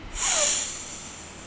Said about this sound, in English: And let's take a big breath in.